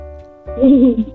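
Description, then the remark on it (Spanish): A child's voice lets out one short, wobbling hoot-like call in imitation of a gorilla, fairly loud, lasting about half a second before cutting off. “Ahora hazle el ruido de un gorila.”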